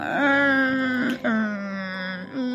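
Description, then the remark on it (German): A voice imitates the creaking of rocking chairs on a porch with drawn-out, whiny tones, three sustained creaks separated by brief breaks, fairly loud with no other sounds. “Eines Tages hörte das Ehepaar in den frühen Morgenstunden etwas sehr Merkwürdiges nämlich das Knarren von Schaukelstühlen auf ihrer Veranda.”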